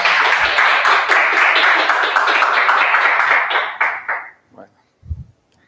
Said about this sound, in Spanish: ¿Me cuentan en aplausos eso?